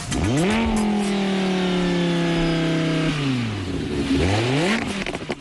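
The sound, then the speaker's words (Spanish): A Lamborghini sports car engine revs loudly, climbing to a sustained high whine, dropping back, then revving up again in a quick second burst, with no talking. “El Lamborghini suena así.”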